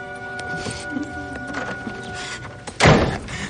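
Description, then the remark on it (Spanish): The door of an apartment in an apartment block opens with a few faint clicks and rattles, then a single loud, heavy thud near the end, all over a steady low electrical hum. “accede al recinto de un bloque de apartamentos y corre hasta la puerta de uno de ellos. Abre”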